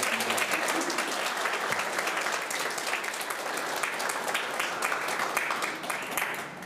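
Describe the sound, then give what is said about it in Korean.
Sustained applause from a large church audience on Father's Day, honoring the fathers present, a dense wash of many hands clapping steadily at an even loudness for several seconds before easing slightly at the end. “우리 큰 박수로 보내주니다”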